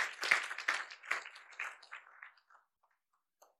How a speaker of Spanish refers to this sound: Y por eso aquí estamos celebrando este domingo de palmas. ¿Cuánto le damos ese fuerte aplauso a nuestro Dios? Aleluya.